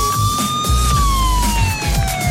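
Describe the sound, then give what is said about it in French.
An ambulance siren, played as a jingle, wails loudly and steadily, its pitch gliding slowly downward over a rumbling low background, with no one talking. “Voilà, l'ambulance, euh, l'ambulance pour aller à la moto aujourd'hui.”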